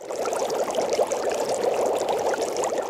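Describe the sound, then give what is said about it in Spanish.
Water pours steadily into water for about three seconds, a continuous splashing trickle with a bubbly, dripping texture, imitating raindrops falling onto a surface of water. “¿Cómo sonarán las gotas de lluvia cayendo en el agua?”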